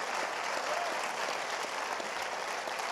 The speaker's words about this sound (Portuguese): Pai, Filho e Espírito Santo, vamos aplaudir os três? Amém? Glória a Deus.